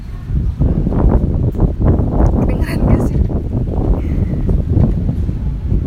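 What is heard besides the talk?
strong wind blowing outdoors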